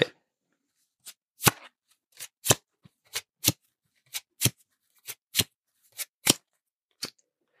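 Crisp snapping clicks of playing cards being handled in card flourishes, about a dozen sharp flicks at an uneven pace with short quiet gaps between them, and no one talking.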